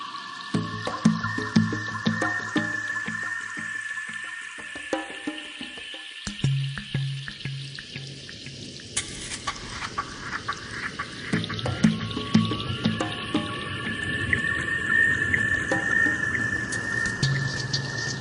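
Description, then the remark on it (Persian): Continuous watery sloshing and splashing, like oars dipping and pulling through water, as a rowing boat with a girl sitting in it approaches an island, with an irregular rhythm and steady moderate loudness throughout, with no voices. “یه قایق داره به جزیره نزدیک میشه و یه دخترم توش نشسته دختر قایق پارویش رو کنار ساحل جزیره نگه میداره و پیاده میشه”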